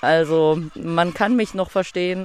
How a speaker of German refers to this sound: Den Chachalaka-Vögeln war das aber herzlich egal, die haben durchgebrüllt.